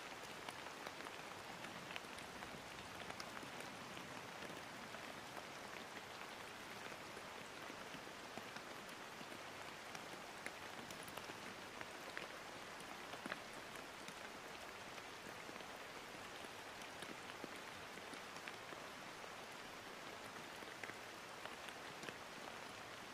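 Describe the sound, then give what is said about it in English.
Steady rain falls continuously, a dense, even hiss of drops pattering on surfaces with no pauses or voices, moderately loud throughout. “Listen to the sound of the rain falling around you and feel how your breath animates the ribcage.”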